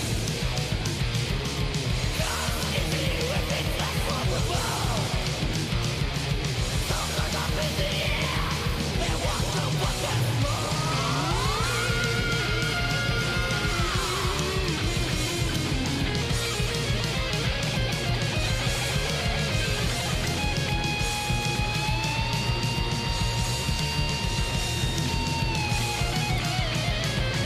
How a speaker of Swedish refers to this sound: Jävlar vad de klockar allting härligt med 80-tals speed thrash. Till och med virveln som låter större än Peter Harrisons jultallrik.